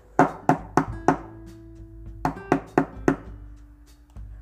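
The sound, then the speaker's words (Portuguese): Two sets of four knocks on the wooden door of a small house, sharp and hollow with a short pause between the groups, clear with no voices. “Quando se aproximou da casinha dos ursos, já muito cansada de tanto andar, resolveu bater à porta.”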